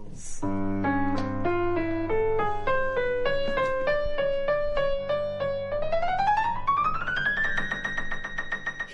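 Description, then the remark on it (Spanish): A washing machine drum spinning up, its motor giving off a harmonic, humming whine that climbs in pitch step by step over a steady rhythmic pulse, fairly loud with no voices. “El rítmico giro de la lavadora comenzó a fascinarme cuando apenas tenía seis años.”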